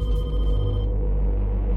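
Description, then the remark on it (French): A telephone rings in the horror film Scream, the sixth installment, with a steady, continuous electronic trill, fairly loud, sitting over a low background rumble with no voices. “d'une saga culte aussi, un film d'horreur ah, si je vous dis tueur masqué, couteau, ah, bah, téléphone, scream, évidemment.”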